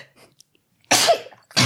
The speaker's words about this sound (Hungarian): Ide is tüsszent.